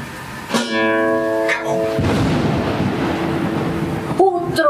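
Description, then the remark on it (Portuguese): A roll of thunder shaking a house on a night with no stars and no moon: a broad, rushing rumble lasting about two seconds, steady and fairly loud, set between brief tonal, wavering sounds before and after it. “trovão estremeceu a casa, que sacudiu o colchão”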